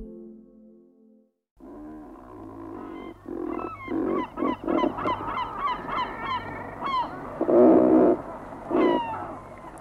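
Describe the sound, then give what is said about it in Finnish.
Razorbills calling: a series of harsh, rasping, growling croaks in irregular bursts, loud and fairly low-pitched, with overlapping calls from several birds and no talking. “Mitenköhän ruokkia pitäisi kuvailla?”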